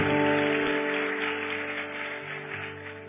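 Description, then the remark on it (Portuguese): A church audience applauds once more in praise of God during a sermon, in a dense, continuous wash of clapping that gradually eases off over a few seconds, with a faint sustained tone humming underneath. “Aplauda ele mais uma vez.”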